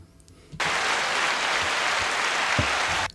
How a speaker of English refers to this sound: I like the applause button. Yes, I like it too.